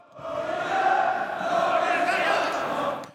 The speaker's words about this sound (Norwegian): Samtidig er det lov å slippe 200 tilskuere inn på stadion, og det er med på å lage ekte publikumslyd.